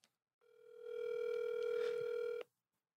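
A single steady electronic ringback tone from an outgoing phone call made during a broadcast, lasting about two seconds and then cutting off cleanly, with no voices.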